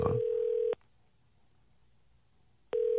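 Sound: telephone ringback tone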